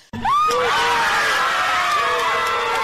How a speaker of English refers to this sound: the crowd erupted in cheers at the announcement of guilt on all three charges, and there was uniform praise for the verdict from people in all walks of life.